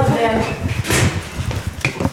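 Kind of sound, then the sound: household object, apartment door being opened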